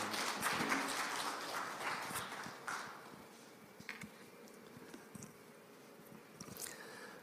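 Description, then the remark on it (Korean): An audience at a dawn prayer service applauds to welcome a missionary who will preach, with a dense patter of clapping that is loudest in the first few seconds, then thins out into scattered, fading claps until the end. No one speaks. “우리 다시 박수로 모실까요?”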